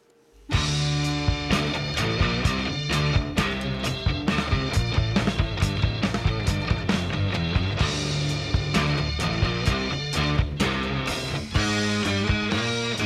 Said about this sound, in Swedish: låten heter … och han säger att det är som … fast med träsvärd